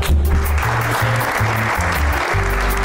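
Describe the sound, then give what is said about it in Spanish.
An audience applauding steadily for a performer being introduced, dense overlapping claps forming a continuous wash of sound, fairly loud, with a low humming tone underneath and no voices over it. “Aplaudir un poquito, coño.”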